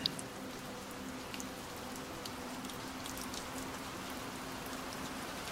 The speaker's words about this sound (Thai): หลับตาลงสิครับ แล้วมาฟังเสียงฝนไปด้วยกัน